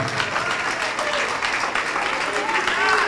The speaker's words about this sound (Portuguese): E vamos aplaudir ao Senhor Jesus.